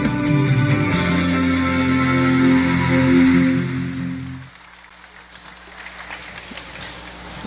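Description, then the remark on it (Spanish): Loud, dense applause from a large crowd welcoming the word of God fills the first four seconds over sustained musical tones, then cuts off sharply, leaving quieter faint scattered noise. “Recibamos con un fuerte aplauso la palabra de Dios.”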